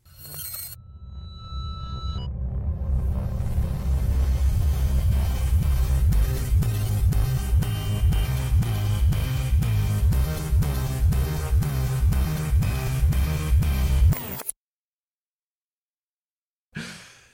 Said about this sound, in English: It means that I want to hear the retro vaping bumper again because it's so creepy.